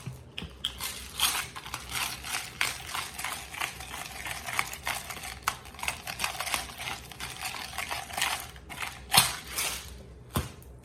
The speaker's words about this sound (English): fresh ground black pepper.